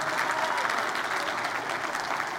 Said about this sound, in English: Shall we give the Lord a big hand clap? Amen.